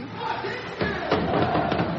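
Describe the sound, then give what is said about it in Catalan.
A basketball crowd at the Congost roars and shouts during the Baxi Manresa player introductions, a dense, continuous wash of noise, with sharper bursts of yelling swelling up around the middle and carrying on loudly to the end. “amb els crits de e, e de tot el eh, públic.”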